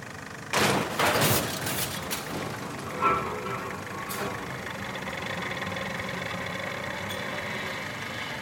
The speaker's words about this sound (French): au milieu du cimetière de voitures, le moteur d'une machine tourne.